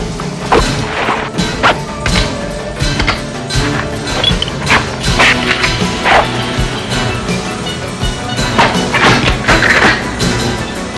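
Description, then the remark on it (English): In a film scene of a woman gearing up, rifle magazines are slapped into place and weapons are cocked, a steady run of sharp metallic clacks and heavy thuds repeating over a loud, dense, continuous backdrop. “Yeah, it's just magazines being slapped.”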